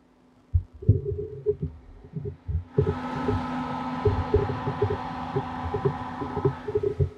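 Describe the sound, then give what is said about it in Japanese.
A personal computer's cooling fan whirs up partway through and keeps up a steady, airy rush after the PC has been working hard repeatedly placing F1 ticket orders, layered over low, irregular thumping pulses that run through the whole clip. No one speaks. “非常に疲れててですね、今、あの、息切れの方をね、起こしていて、こう、ファンがずっとファーっと回ってますけども、いや、どうでしたかパソコンさん、今日の戦いは。”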